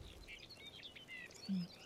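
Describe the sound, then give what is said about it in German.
Faint birds chirping and twittering in a forest with moisture in the air, several short high calls overlapping across the stretch, with a brief low hum near the end and no talking. “Ich, Wald und Bäume und Vögel zwitschern und ein bisschen Wasser in der Luft, das mag ich.”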